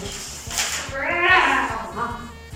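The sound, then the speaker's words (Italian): A child's voice imitates a monster's scream, a loud, wavering cry that swells in the middle and then trails off into a shorter strained wail over about two seconds. “Dopo qualche tempo il libro viene pubblicato, ma quando lo scrittore prende nelle sue mani una copia del libro, la apre e sente un grido.”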